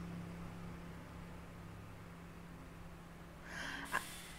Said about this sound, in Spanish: Es que es el ventilador prendido, qué tonta. No, ya va, espérense. Porque, ay, Dios mío. Seguramente están escuchando que si el ruido del ventilador.